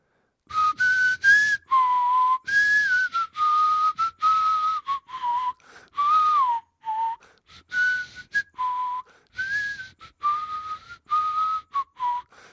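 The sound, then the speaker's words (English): Someone whistles a rock song melody, clear and fairly loud, in a run of short bouncing phrases separated by brief pauses, with no talking. “they were playing uh, … quite loudly from one of their telephones. Now, remind me how that one goes.”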